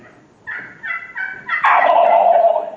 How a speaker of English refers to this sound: And uh, but it's nothing like calling and hearing that old turkey. When that when that old turkey gobbles, and then you call back to him,